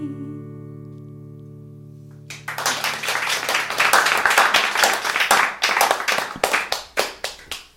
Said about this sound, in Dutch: Ja, ik moest toch even klappen hoor.